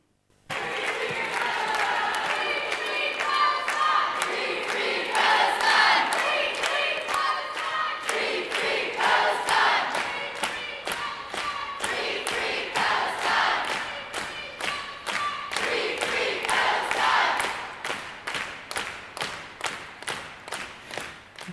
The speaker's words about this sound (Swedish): och um, under uppläsningen av, eller under presentationen av årets diktsamling så fick vi också höra lite eh, röster i solidaritet med eh, eh Palestina som vi kan höra här också.